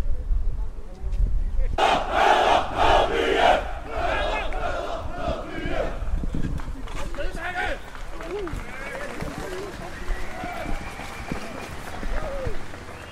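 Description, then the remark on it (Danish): A crowd of FCK football fans in Brøndby, after a demonstration ended, loudly chanting a football song in unison, rhythmic and rowdy at first, then fading into a dense murmur of many voices and crowd noise. “så tror jeg, at øh, demonstrationen er ophævet, og der bliver lige sunget en lille smule slagsang.”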